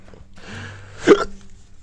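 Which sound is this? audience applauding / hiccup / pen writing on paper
hiccup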